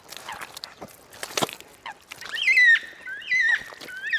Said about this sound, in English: I wanted to come out during the day to use my ears to listen to what's around. I can certainly hear those coots.